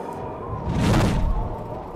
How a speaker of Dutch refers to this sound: Hey. Ik doe de deur open.